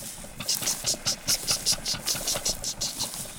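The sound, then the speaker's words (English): An oil derrick pump, about 12 feet tall, in Osage County, Oklahoma, runs with a steady engine chug, its repeating knocks pulsing about four times a second with a hissing high edge, loud and alone without any voices. “pumping of the oil derricks.”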